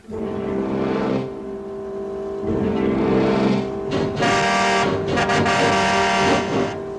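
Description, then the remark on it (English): A loud, growling car engine in a film trailer drones steadily with strong low harmonics, then revs and surges in distorted bursts, heavily processed, with no voices. “Evil has visited the earth in many forms. Now it returns as the car.”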